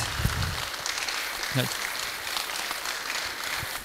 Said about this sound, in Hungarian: és tapsoljuk meg szép sorban vendégeinket